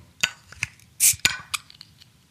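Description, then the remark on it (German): A few sharp metallic clicks and clinks, then a brief, soft hiss as the cap comes off a bottle of Kona Brewing Big Wave Golden Ale, followed by more light taps of glass. “jetzt lass uns nicht, lass uns nicht länger warten, ja, lass ja, uns jetzt das Bier öffnen.”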